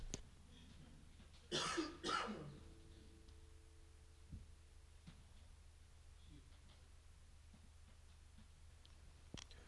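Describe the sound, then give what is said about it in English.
Two quick, harsh coughs, one right after the other, followed by a quiet stretch with a low steady hum and a few faint clicks. “Read it again, real quick, while I cough and t- take a drink.”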